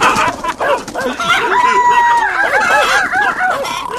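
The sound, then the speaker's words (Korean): A loud, crowded din of dogs barking and roosters crowing at once in a countryside village at night, set off by a drunk man passing by, overlapping calls filling the whole stretch, with one long drawn-out crow rising above the commotion midway. “온 동네가 개소리에 닭소리에 난리가 나는 겁니다.”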